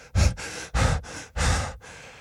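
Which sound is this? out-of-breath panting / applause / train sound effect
out-of-breath panting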